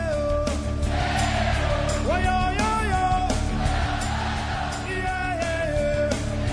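A traditional Mexican grito: a loud male yell that rises, warbles and trills in several bursts, heard over a steady musical backdrop.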